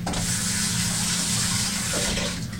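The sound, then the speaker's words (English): Tap water runs steadily from a faucet into a sink to wet a rag for testing whether washable marker washes off wood, a continuous splashing hiss with a low rumble underneath, easing off slightly near the end. “So first up is try it with water, and then I'll try it with some cleaner if it doesn't come out.”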